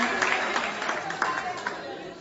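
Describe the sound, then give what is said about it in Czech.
An audience claps together for their neighbours in a steady, dense burst of applause that holds at an even level for a couple of seconds, with murmuring voices mixed underneath. “Give him a hand clap.”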